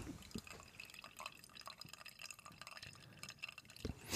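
Water drips and trickles steadily for a few seconds, close by and fairly quiet, with small irregular plinks over a faint hiss and a louder splash near the end.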